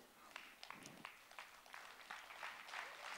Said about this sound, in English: I like that too. Thank you for clapping